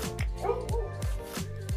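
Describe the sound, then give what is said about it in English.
An old dog barks loudly, about five sharp woofs in quick, slightly irregular succession, with no pause between them. “You guys, if my dog ends up dying or going missing, I did Stop.”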